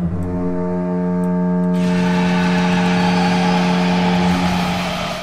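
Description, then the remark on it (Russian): A loud, sustained hockey arena goal horn of the Anaheim Ducks blares steadily for several seconds, its deep harmonic tone swelling as crowd roar and noise rise beneath it partway through. “Это звучат Анахайм Дакс.”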